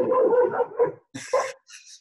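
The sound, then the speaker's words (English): A dog barks and whines in a short burst of vocalizations, with a couple of sharper yips near the end. “And my dog agrees with that yep.”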